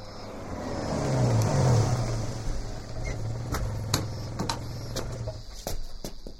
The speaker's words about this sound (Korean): 질문에 대답이라도 하듯 흰색 경차가 하나 들어오더니 꼬마 앞에 섰다. 체구 큰 남자가 차에서 내렸다.